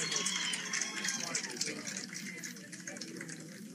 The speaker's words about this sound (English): crowd cheers for him taking time. Yeah, that's always... haven't seen that a whole lot.